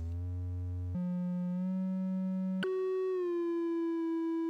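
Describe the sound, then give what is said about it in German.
A steady triangle-wave tone from a synthesizer oscillator, soft and slightly hollow, holds one pitch, then jumps abruptly to two different notes in turn, sounding alone without any voices. “Wir können dann eine Dreiecksspannung nehmen. Die klingt schon anders.”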